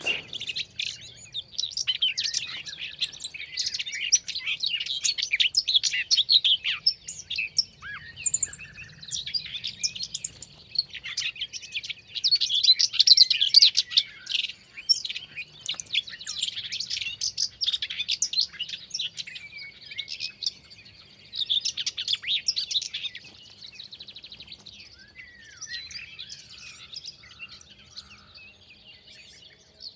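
A common whitethroat's scratchy, rapid song bursts in lively phrases during display flight, steady, with other birds twittering faintly in the background.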